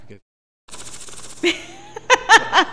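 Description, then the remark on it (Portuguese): A voice mimics the valve tappets knocking in the engine of a Gol G3 car, producing a few sharp, rhythmic clattering bursts after a short silence. “Nesse gol, gol G3, ele batia tucho demais. Eu trocava os tuchos, como pensei, não batia de novo. Aí ficava aquele barulho assim.”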